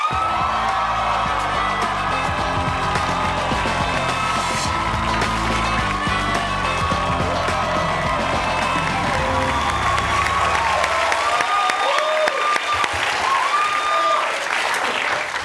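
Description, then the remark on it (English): A TV talk show studio audience bursts into sustained loud applause mixed with shrill, high-pitched screams and whoops as an actor guest is welcomed, a dense wall of clapping and cheering that carries on without a break, no one talking over it. “Such a beautiful crowd here. Wow. The pitches of the screams are not usually that high.”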